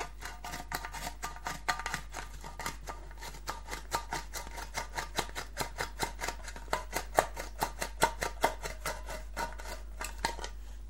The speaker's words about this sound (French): La boîte de conserve. Objet tout à fait anodin et quotidien qui révèle dans bien des cas des qualités sonores totalement dingues. Comme ici, lorsqu'on l'ouvre.